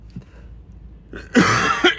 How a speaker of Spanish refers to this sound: Hoy llevo un día de tos que lo flipas, macho.